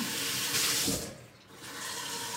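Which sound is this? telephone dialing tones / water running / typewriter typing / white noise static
water running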